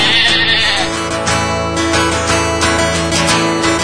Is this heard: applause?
no